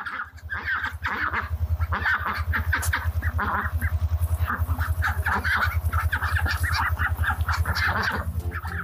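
A hen clucks busily and repeatedly in a dense, continuous stream of short calls, loud, over a steady low hum, with no talking.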